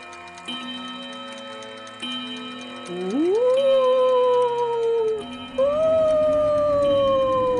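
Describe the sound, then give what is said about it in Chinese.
A clock ticks in slow, steady beats as it counts down the last seconds to midnight. Partway through, a loud, wavering, howl-like tone rises in pitch and holds over the ticking before it falls away. “还有三十秒，答滴答滴答滴答滴，啪滴！”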